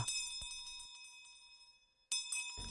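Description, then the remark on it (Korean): A charity kettle hand bell, rung for year-end charity fundraising, rings in a rapid run of bright metallic strikes that ring out and fade, then after a brief pause a new burst of clanging starts again, fairly loud. “그러니 연말이면 어김없이 들을 수 있는 자선 냄비 종소리는 참 즐겁고 복된 소리죠.”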